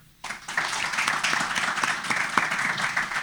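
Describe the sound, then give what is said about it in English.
Audience applause from those introduced to Tom Hopkins for the first time on the trip, bursting in after a brief silence and carrying on steadily, a dense, loud wash of many hands clapping with scattered sharper claps, and no voices. “So now, so how many of you folks that uh, by show of applause uh, were introduced to Tom Hopkins for the first time on this trip?”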